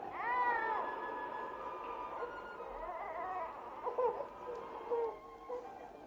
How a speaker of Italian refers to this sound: Ehi tu, cocchiere! Hai sentito un lamento? L'ho sentito e ne provo gran pena.